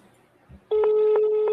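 A loud, steady ringback tone from a phone call on speakerphone that goes unanswered comes in abruptly after a moment of quiet background noise and holds unbroken to the end, with faint pulsing accents.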